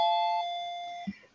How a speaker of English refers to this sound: Oh, I, I somebody decided they're going to knock on my door. That's the doorbell. I'll, oh, I'll i was wondering what the hell that was.